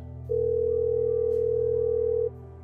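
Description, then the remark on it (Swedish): A single steady telephone ringback tone, the third ring of a call, sounds for about two seconds over a low hum, then stops, leaving the quiet line buzzing. “Tre signaler.”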